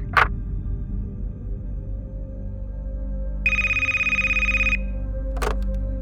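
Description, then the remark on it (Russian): A telephone rings once in a single trilling burst lasting just over a second, over a low steady hum, with a faint click before and after. “Я позвоню тебе завтра и расскажу все.”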